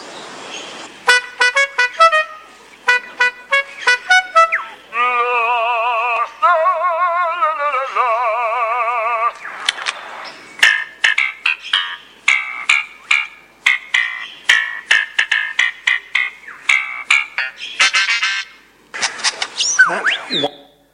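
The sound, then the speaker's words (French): A male bird in a forest sings a song packed with mimicry of sounds he hears: rapid staccato clicks and whistles, a long wavering horn-like tone resembling a car horn, then bursts of bright chirps and mechanical trills, loud and without any talking. “donc là, euh, c'est un oiseau évidemment qui a des talents d'imitateur incroyables et il a incorporé dans son propre chant toute une série d'imitations euh, bah, de, gens, de chiens, de, différentes situations”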